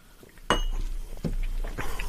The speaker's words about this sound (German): also ich muss mal kurz äh, einen Schluck Wasser nehmen hier, damit es gut weiterläuft.